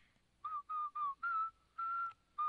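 Someone whistles a short tune, a run of clear, steady notes of varying length with brief gaps between them, fairly loud with no talking.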